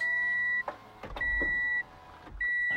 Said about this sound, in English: Hold on, let me open up my car door because.